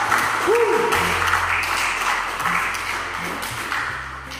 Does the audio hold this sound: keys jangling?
no